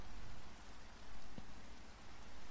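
Steady rain falls in a dense, even hiss across the whole stretch, with scattered drops pattering on a surface and one brief thud partway through; no voices.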